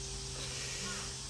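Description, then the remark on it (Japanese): A steady, hissing drone of cicadas heard through an open window on a summer day after a typhoon passed in the morning, holding constant for the whole moment over a low electrical hum, with no one speaking. “セミの声聞こえてますかねこう今日は今朝台風が通り過ぎたんですかねちょっと今窓を開けてねあのやってるんでセミの声がちょっと聞こえるかと思いますがまあこれも夏ということでいいかなと思ってちょっと窓閉めるのをやめてみました”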